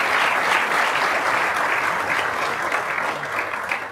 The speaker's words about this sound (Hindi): ज़रूर आपने अच्छा जिक्र किया कि मुनवर भाई को हमारे दिलबर और बड़े अजीज़ बड़े भाई को साहित्य अकादमी अवार्ड मिला है तो इसके लिए एक फिर से एक मेरी गुजारिश पर ताली तो बजा ही देगी